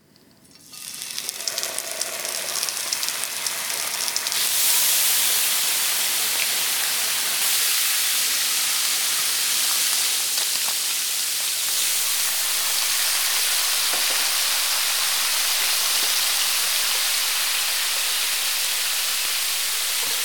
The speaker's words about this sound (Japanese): 今朝は今が収穫期生姜を使った生姜焼きのいい音それではお聞きください